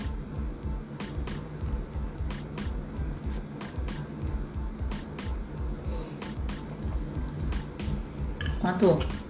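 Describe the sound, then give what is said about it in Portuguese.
A speaker drinks a glass of water, with a run of small wet clicks and swallows over a low background rumble, ending in a brief voiced exhale. “Vou aproveitar, vou beber mais uma água.”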